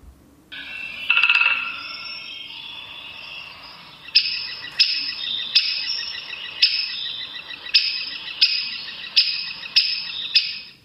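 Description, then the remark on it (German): Sharp, high bird calls repeat in a steady series of short, clear bursts, a great spotted woodpecker's alarm call, with no talking over them. “Ah ja, hier haben wir also den Warnruf gehabt, ne?”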